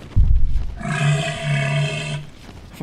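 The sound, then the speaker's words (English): A male elephant seal, whose males weigh nearly 9,000 pounds, lets out a loud roar, a deep rattling bellow that pulses for over a second after a short low grunt, with no voices around it. “It is when you consider a male elephant seal weighs nearly 9,000 pounds.”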